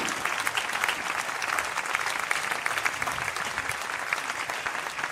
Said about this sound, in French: On peut les applaudir. Merci.